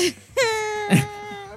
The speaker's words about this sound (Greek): θα κλάψουμε λοιπόν, γιατί αυτό που ακούσατε ήταν ο διάβολο Τασμανία.